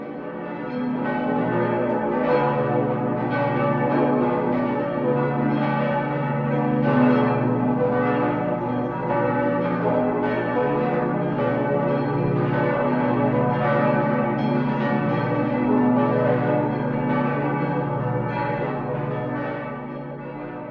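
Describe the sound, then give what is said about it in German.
An archive recording of a full peal of ten church bells, all dating from between the 14th and 18th centuries, rings continuously, overlapping strikes blending into a dense, resonant wash that stays loud and steady throughout, with no voices. “Gewissermaßen aus dem sicheren Abstand einer Archivaufnahme des Vollgeläuts der zehn Glocken, die alle aus der Zeit zwischen dem 14.”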